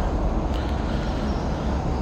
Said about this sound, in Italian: Mi raccomando, è arrivato l'autobus, quindi adesso vi lascio in stand by, vi sentite un po' di suoni, rimanete qua.